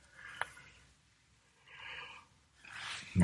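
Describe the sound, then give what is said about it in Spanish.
A person yawns, a soft airy exhale swelling and fading, followed by a second longer breathy stretch that ends in a low voiced sigh. No speech. “me imagino que seguís bostezando junto conmigo.”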